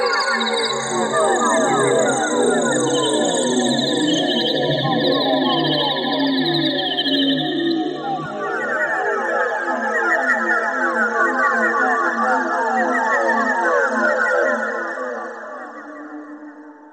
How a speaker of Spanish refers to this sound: Escuchamos Life is Nothing But a Dream de 1993 para sintetizador y computadora de Guillermo de Mendía, 1955, México.